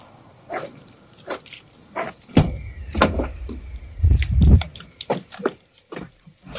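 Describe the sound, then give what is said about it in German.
A van door opens with a series of clicks, clunks and heavy low thumps, including a rolling slide and scattered rattles as someone climbs inside the van; no one speaks. “Jetzt sind wir am Van angekommen. Wir gehen mal rein.”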